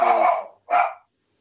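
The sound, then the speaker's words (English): Two sharp dog barks, a longer bark followed quickly by a shorter one, then silence. Nobody speaks. “That's my dog, of course.”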